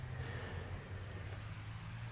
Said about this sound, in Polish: Na tym mm, w pewnym sensie ciekawym skrzyżowaniu, to nieduże skrzyżowanie i tak usytuowane, że samochody muszą tu zwolnić